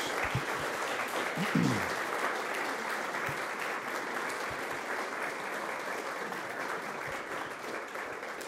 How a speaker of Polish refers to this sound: Nie przedłużając e, tej prezentacji naszego gościa, bardzo proszę o brawa na jego przywitanie i cześć.